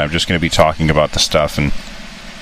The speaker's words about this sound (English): And I'm sure that you can hear that there's construction in the background. My my wife and I are on vacation in Montreal, and of course, it's a very loud part of town where we're staying, and that's okay.